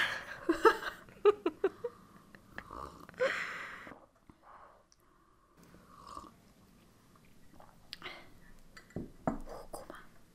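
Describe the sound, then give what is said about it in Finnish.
A wet slurping sip of a drink amid soft mouth noises and faint whispery breaths, with a few scattered clicks and gulps over a quiet background. “Mä en kestä, miten kousi toi ääni, kun sä hörpä, hörppäsit sitä.”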